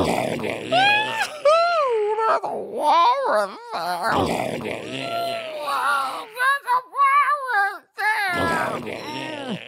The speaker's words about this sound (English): That's a walrus sound.